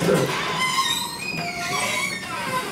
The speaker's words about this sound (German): Ich finde, eine knarrende Tür ist ein fantastisches Ende.